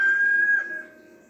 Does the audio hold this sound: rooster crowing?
yes